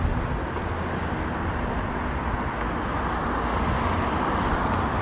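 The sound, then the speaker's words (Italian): Loud roar of two buses speeding past on a road in Italy, a dense continuous rumble of engines and tyres that stays steady throughout with no voices. “qui ci sono due sono quasi schiacciato in mezzo a due autobus benissimo che corrono come se non ci fosse un domani, corrono quando non serve.”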